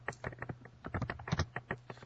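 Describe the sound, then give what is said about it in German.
Rapid typing by a man on a computer keyboard, a quick irregular run of sharp clicks and key taps, moderately quiet, with a faint low hum underneath and no talking. “Man hört ihn ja tippen, das ist ja hervorragend.”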